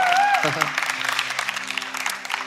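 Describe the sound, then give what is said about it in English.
A crowd breaks into steady applause, a dense patter of many hands clapping that holds at an even level throughout, with a brief rising vocal tone at the very start. “Let's give him a back round of applause.”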